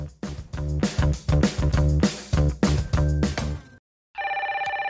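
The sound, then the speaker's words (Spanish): A telephone rings loudly in rapid, repeated bursts, then after a brief silence a steady electronic ring starts up with a fast warbling pulse. No one speaks. “¡Momentito, no cuelguen!”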